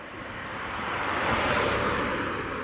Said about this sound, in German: Also es ist noch nicht stockduster, es ist einfach nur am Dunkeln. Und wir laufen jetzt die Straße entlang. Da kommt gleich ein Auto, vielleicht hört man es, so ein bisschen fürs Ambiente. Wir laufen die Straße entlang zum Restaurant unten am Hafen.